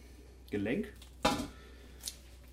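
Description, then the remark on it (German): A knife, handled in rubber gloves, works through the hip joint of a game carcass with a sharp scraping crunch and a faint later click, preceded by a short voiced murmur. “Man hört, ich bin jetzt hier gerade genau im Beckengelenk.”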